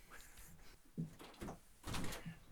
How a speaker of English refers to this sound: Oh, just a knock at the door.